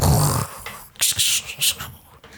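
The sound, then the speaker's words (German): A voice imitates crackling lightning: a low, rough throaty burst, then several short, sharp hissing zaps in quick succession, fairly loud. “Und er hört Blitzgeräusche so.”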